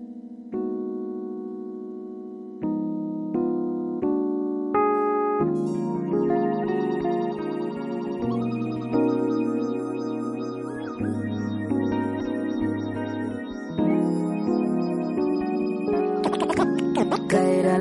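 A song plays, opening with a few sustained synth chords before a fuller arrangement with bass and layered instruments builds in, loud and continuous with no voices over it.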